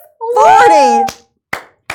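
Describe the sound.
A brief voiced exclamation gives way to a few sparse, sharp hand claps, three loud smacks spaced unevenly rather than a full sustained round of applause.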